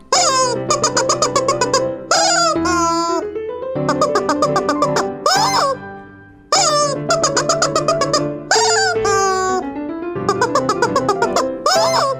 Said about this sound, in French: Et tiens, écoute-moi, après un an d'entraînement au poulet en plastique.